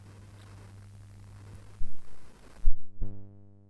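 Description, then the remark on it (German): A cassette being flipped over from side B to side A: a few plastic clicks and clunks over steady tape hiss and low hum. The hiss cuts off abruptly, followed by a couple more thumps. “So, ähm, wir wenden die Kassette, was sich ungefähr so anhört.”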